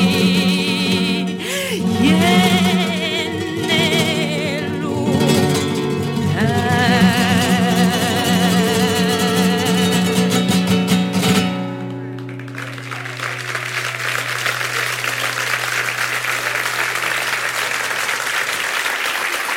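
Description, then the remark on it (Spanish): A live flamenco performance at the Festival de Nime, with a wavering sung voice over strummed accompaniment, plays for about eleven seconds, then breaks into sustained, fairly loud audience applause while a low note lingers underneath. “Los sonidos del Festival de Nime, festival de gran éxito, que abrió todos sus escenarios al 100%”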